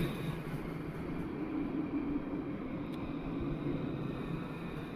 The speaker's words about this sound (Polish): Wysiadam już z tramwaju. Tramwaj po mojej prawej.